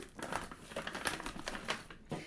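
Sticky tape being peeled off the side of a heavy, square, wrapped board-game package taped with two strips on each of three sides, a quiet, crackly ripping with short uneven bursts over about two seconds and no talking.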